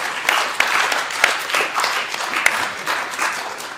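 A crowd applauds the comrades steadily before the floor is given to speakers, many hands clapping in a dense, even patter with a few sharper individual claps standing out. No one speaks over it.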